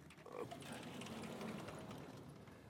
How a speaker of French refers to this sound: j' monter le tableau, si je trouve le bouton, voilà. Ça fait beaucoup de bruit.